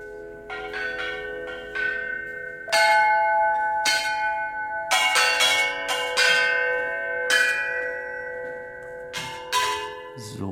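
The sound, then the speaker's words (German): Thai elephants freely playing gongs, metallic percussion and drums, struck loosely and irregularly, each hit ringing out with long, overlapping tones, some strikes louder than others, with soft drum-like thumps beneath and no talking. “und nicht mehr äh, arbeiten müssen, sondern die dürfen recht frei da auf ihren äh, Gongs und Trommeln herummusizieren.”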